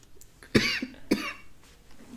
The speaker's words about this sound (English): you're coughing, you fucking coronavirus motherfucker. I was just smoking earlier.